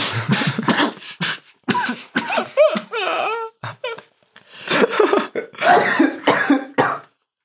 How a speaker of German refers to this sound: So klingt es, wenn sich ein Zauberer an seinem Bier verschluckt, aber ich habe nicht einen Tropfen verschüttet dabei.